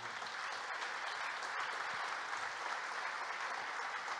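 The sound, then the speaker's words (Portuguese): A church audience applauding the King of Kings, God, steadily, a dense, continuous wash of many hands clapping at an even loudness throughout, with no voices standing out. “Então aplauda o Rei dos Reis para valer.”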